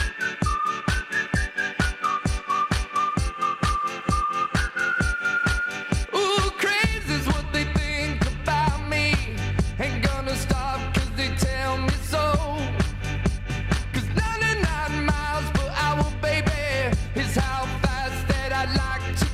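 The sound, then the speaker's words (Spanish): A whistled radio programme signature tune: a catchy whistled melody over a steady thumping beat, which swells into a full, bright musical arrangement after a few seconds, the whistle carrying the tune throughout. “Esa es la única sintonía silbada, son los únicos colaboradores que, que creen que saben cantar, también creen que saben silbar mm.”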